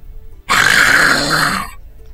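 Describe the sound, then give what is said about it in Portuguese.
A single loud, rasping snore-like breath from a sleeping man, heard through a wall, lasts just over a second, harsh and noisy with a groaning, throaty texture, heard alone with no talking. “Cada respiração dele eu, eu levo um susto aqui.”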